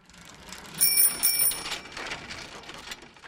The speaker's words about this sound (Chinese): 还是自行车发出叮铃铃的声音，他们都会慌乱的挤在一起，匆匆的从马路上下来。